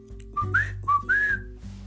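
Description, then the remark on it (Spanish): A person whistles a clear two-part call twice in a row, a short steady note sliding up into a longer, higher tone, fairly loud over a low background hum, calling birds to a terrace in the morning to be fed. “Así que todas las mañanas, con un silbido”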